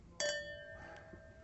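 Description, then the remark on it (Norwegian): Glasses clink together once in a toast, a bright, sharp ring that hangs on with a sustained high-pitched shimmer as it slowly fades, with no talking over it. “Ja, vi gjør Vi skåler, og så Og så tar du litt mer i sånn, bare for å rette lyden.”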